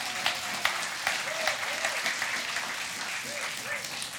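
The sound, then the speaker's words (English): A church audience applauds steadily for a pastor, a dense patter of many hands clapping at moderate volume, with a few scattered cheers or voices rising over it throughout. “Let's hear for Pastor Beth.”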